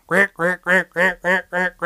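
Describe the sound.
A person imitates a duck with seven loud, nasal quacks in a quick, steady rhythm, with no other talking.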